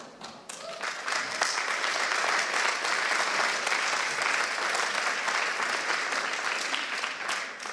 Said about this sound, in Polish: I klaskajcie w dłonie wszystkie narody, dlatego że klaskając ogłaszamy, że Bóg jest groźny dla moich wrogów i kładzie ich pod moje stopy.